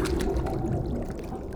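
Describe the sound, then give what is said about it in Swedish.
Water sloshes and churns in a steady, low rush as someone steps slowly down into the water and moves toward a door, with no voices present. “Du kliver sakta ner i vattnet och tar dig närmare dörren.”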